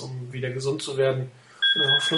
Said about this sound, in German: Ja, sorry, das war mein Telefon. Das habe ich jetzt gleich mal leiser gestellt.